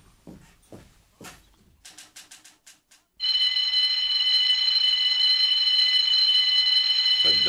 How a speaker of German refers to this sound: gesamte Alarmanlage. Hoffentlich kommt bald der Besitzer, um das Ding abzustellen.